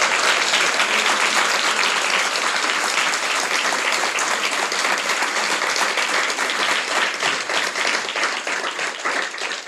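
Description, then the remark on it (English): A crowd applauds steadily for about ten seconds, dense overlapping claps forming a loud, sustained wash of sound that tapers only slightly toward the end, with no voices standing out. “So, for everyone live here today and listening at home, can we please give Sarah a huge round of applause?”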